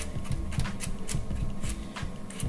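A large knife chops a quartered carrot into small pieces on a board in quick, uneven strokes, each chop a sharp knock, repeating steadily over a low background hum with no talking.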